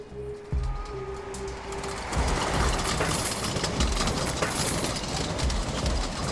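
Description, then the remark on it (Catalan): A car engine hums steadily, then surges into a louder, rougher roar as it accelerates, holding that strong rushing drone for the rest of the moment with no voices. “arreu vos fort, que anem a accelerar.”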